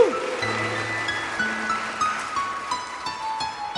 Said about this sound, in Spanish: Dale un aplauso fuerte a Cristo, hermano.